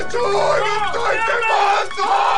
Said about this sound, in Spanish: Fue en la madrugada cuando terribles gritos lo despertaron.